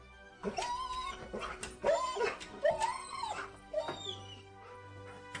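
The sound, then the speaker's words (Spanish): The dog Chu howls and whimpers in a string of high, wavering whines, four or five pained cries with short gaps between them, fairly loud, with no one talking. “Oíamos los aullidos de Chu.”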